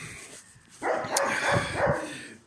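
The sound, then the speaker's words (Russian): A dog barks a few times in quick succession, with a short whimpering edge between barks and no voices over it. “Ну что, собачка? Все гавкает.”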